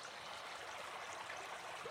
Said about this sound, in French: Guidé par le bruit de l'eau, Frimousse arrive devant la rivière.